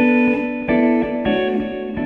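An electric guitar plays sustained chords alone through two amps, each strum trailed by quick slapback and a long quarter-note and dotted-eighth delay whose repeats bounce between the amps, blurring into a steady, moderately loud wash of echoes.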